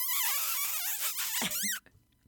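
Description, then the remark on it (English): A rapid series of high, thin squeaks made by sucking air through pursed lips, warbling up and down for nearly two seconds before stopping abruptly. It is fairly loud, with no talking over it. “And it is the squeaking sound by sucking air past the lips in order to gain the attention of maybe your pet, maybe your kid.”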